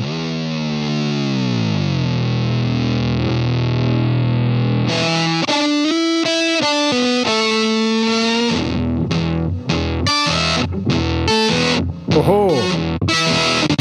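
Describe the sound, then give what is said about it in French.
An electric guitar played through an effects pedal with octaver and filter in a demo, with heavy distortion: a thick, low octave-doubled drone slides downward, then choppy staccato notes and a sweeping, wah-like filtered tone bends up and down. “Donc forcément, il joue beaucoup avec des octaveurs et trucs comme ça. Mais la possibilité de, rajouter du filtre euh, est, plutôt intéressante.”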